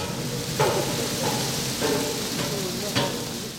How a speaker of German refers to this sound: Gehen wir mal rein, fängt auch gerade an zu regnen.